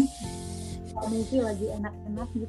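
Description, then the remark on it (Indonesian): Papery rustling and crinkling comes in a few noisy bursts as a tissue is rubbed over a computer to clean it, while a person keeps talking over it. “oh sorry ya tisu oh dia lagi bersihin komputernya dong”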